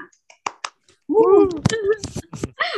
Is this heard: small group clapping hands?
yes